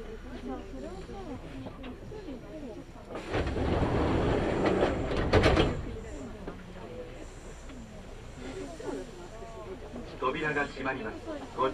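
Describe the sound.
Inside a Kintetsu Nagoya Line local commuter train running on rails from Kintetsu Nagoya toward Kanie, Japan, a steady low rumble sits under people talking, with a loud hissing rush of noise swelling for a couple of seconds midway.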